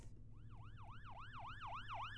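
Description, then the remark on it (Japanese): An ambulance siren sound effect played from a sound pad in the Rode Connect software wails in a fast, repeating up-and-down sweep, loud, over a steady low rumble, with no one talking. “アンビュランス。救急車。”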